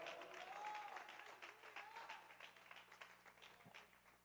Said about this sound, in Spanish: ¿Alguien puede aplaudir al Padre en esta hora? Vamos a darle el aplauso más fuerte. Celebre como que lo dejaron salir después de dos meses encerrado. Vamos.